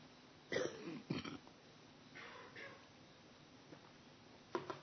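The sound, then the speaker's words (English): Two quick, harsh coughs sound one right after the other, followed by a quieter stretch with faint breathing and a single sharper cough near the end. “You'll have to excuse the cough I brought back with me from Europe.”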